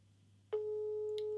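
A telephone busy tone, after a call placed by asking Siri is rejected, cuts in abruptly partway through and holds as a steady, loud, clear electronic beep over a faint low hum, with no one speaking.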